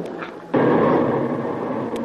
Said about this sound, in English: The concussion from that huh? last shell knocked you down, that's all.